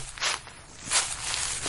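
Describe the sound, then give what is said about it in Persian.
Footsteps crunch through dry yellow leaves in a slow, steady rhythm, each step a brittle rustling burst, moderately quiet, with no voices. “قدمهایم سنگین بود انگار این صدای استخوانهای من است که از برگهای زرد زیر پایم شنیده می شود”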